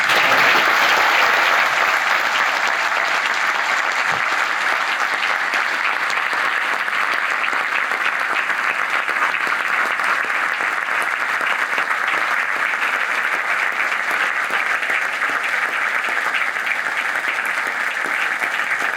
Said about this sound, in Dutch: Geef een allerlaatste keer een applaus